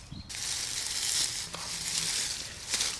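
Steady scraping and rustling of digging through soil and dry beech leaves to uncover a plant's rhizome (rootstock). A dense crackly hiss with brief louder scrapes around the middle and near the end, no voices.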